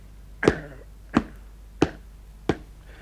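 A hammer taps on a high-heeled shoe four times in a slow, steady rhythm, each blow a sharp knock with a brief ring, separated by quiet pauses.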